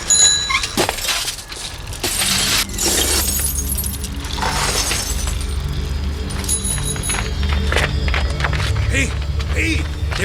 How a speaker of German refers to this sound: Idiot hat die Scheibe von meinem Auto zerschlagen. Meine auch. Und hört meine auch. Das Fenster ist im Eimer. Und bei dem Auto da auch.